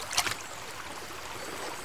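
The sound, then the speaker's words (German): A little water is poured into a bowl holding stones lifted out of gravel, a short splash that fades into a steady, soft watery hiss. No one speaks. “Da fülle ich jetzt nur ein bisschen Wasser ein.”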